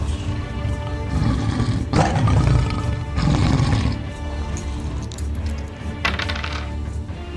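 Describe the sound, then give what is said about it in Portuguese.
A lion roars loudly, a deep rumbling growl that swells into two heavy bursts and then trails off into a lower snarl, with no one speaking. “O leão já prontamente se põe de pé, ele se vira e agora ele tá totalmente focado em você com olhos sanguinários.”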